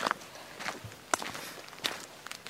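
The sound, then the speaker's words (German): Footsteps crunching over a forest path, four or five unhurried steps, each a short gritty scrunch with a soft rustle between them, at a fairly low level with no talking. “Solange es ein bisschen knirscht, ist gut. Das knirscht gut.”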